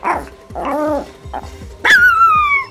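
A dog barks in a few short, high yips, then lets out a louder, drawn-out whine that slides downward in pitch, with no one talking.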